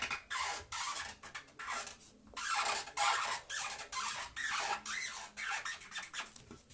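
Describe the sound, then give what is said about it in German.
A nearly empty marker pen scribbles rapidly across paper in a quick, uneven series of rasping, squeaky strokes, about a dozen in all, bright and scratchy, with no voices. “Der Stift malt nicht mehr”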